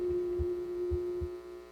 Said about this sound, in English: All I can hear is my heartbeat. And with every beat, the sound grows louder, and I become more afraid.